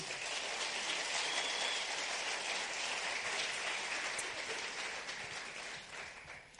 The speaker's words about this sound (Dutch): En we gaan je een heerlijk applaus geven. God zegen, man.